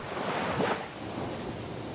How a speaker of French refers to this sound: Moi, ce dont j'ai envie, c'est de réentendre le bruit d'une vague quand elle se retire du rivage